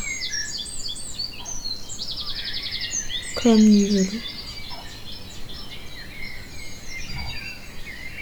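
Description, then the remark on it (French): Several birds chirp and sing outdoors under a clear blue sky during lockdown, in a steady, overlapping chorus of high trills and tweets, with one brief louder call in the middle and a faint spoken word. “Les oiseaux chantent partout, dans les villes et les campagnes.”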